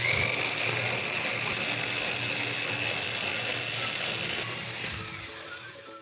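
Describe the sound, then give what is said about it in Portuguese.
An inverted blender blends raisins into a batter, running with a loud, steady mechanical whir and grinding rattle for about five seconds, a thin high whine riding on top, before the motor winds down and fades. “Falei que o liquidificador invertido é super prático.”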